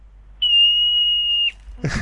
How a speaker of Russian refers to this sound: Что это? Это сурок. Это был сурок.